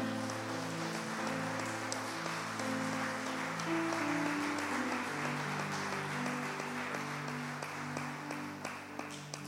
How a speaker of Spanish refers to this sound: Démosle un fuerte aplauso a esta palabra.